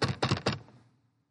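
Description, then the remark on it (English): Three quick, evenly spaced knocks on a door, fairly loud, each a solid thud that fades into a short resonant tail. No voices are heard. “I said, Who is it? I can hear you knocking.”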